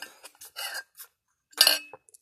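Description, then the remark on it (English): Someone fetches a glass of water: a few light clinks and knocks of glass and utensils, then a short, louder rush like water being poured, all with no voices. “i get my some water here.”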